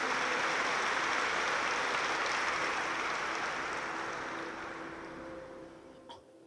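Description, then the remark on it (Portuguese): Steady applause from a crowd, given for Jesus: a dense wash of many hands clapping that gradually thins and fades toward the end, with a faint low hum lingering underneath. “Uma salva de palmas para Jesus.”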